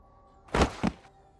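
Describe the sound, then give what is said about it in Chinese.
Two heavy, low thuds land in quick succession as a girl jumps down onto the floor using her hands and feet, the second slightly softer. Nothing else is heard around them. “咚的一声，一个姑娘手足并用跳下地板。”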